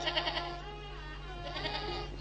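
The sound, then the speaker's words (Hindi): Young kids of spotted goats bleat in a steady, wavering chorus, their thin cries overlapping and pulsing at the start, over a faint low background hum. “तूने चितकबरी बकरियों के नन्हे मेमने देखे ये कैसे मिमियाते हैं”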